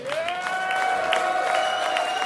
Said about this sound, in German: Ladies and gentlemen, there is one, two, three, four, five, six, seven fucking great musicians and me who's a faker. So please give it up for everyone here on this stage.